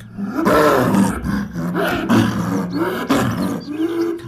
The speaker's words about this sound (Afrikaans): Maar na ruk maak luiperd se gegrom hom wakker. Wie is daar? roep Leo vies. Maar daar is geen antwoord nie. Luiperd grom net al harder.